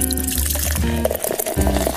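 Liquid pours steadily into a glass, clear, with a gurgling, splashing stream and a rising ringing tone as the glass fills over two seconds, with no talking.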